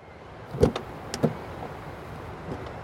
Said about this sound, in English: As I get in my car, I take for granted that the engine will start, and I'll get to my destination without having to worry about where my next tank will come from.